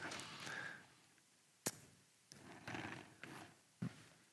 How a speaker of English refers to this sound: I hear some actual paper rustling today. That's fun. That's fun right there.